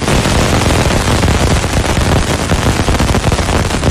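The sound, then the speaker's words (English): Dense, loud crackling with no pauses, a rapid barrage of tiny popping impacts like heavy rain pelting a taut surface or a storm of static, steady for the whole stretch, no voices; the Cassini space probe flying through the dust and gas of Saturn's rings. “That is the sound of the Cassini space probe.”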